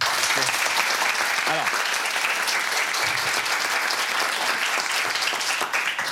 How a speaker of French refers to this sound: C'est très gentil, vous, vous applaudit parce qu'on vous soutient.